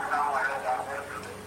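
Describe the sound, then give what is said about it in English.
A caller's voice comes through a thin, muffled phone line, smeared by echo so the words blur together. The murky, tinny speech runs steadily the whole time at moderate loudness. “Honestly, you are echoing. I can hardly hear you.”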